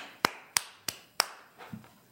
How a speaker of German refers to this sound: Da sage ich auch, da klatsche ich auch mal.